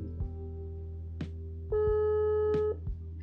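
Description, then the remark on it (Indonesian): A phone call's ringing tone while calling a friend met on Tinder: one steady, mid-pitched electronic beep lasting about a second, over a low constant hum with a few soft clicks. No one speaks. “tapi kita coba telepon dia ya kita random aja random people gitu apakah ada yang menjawab”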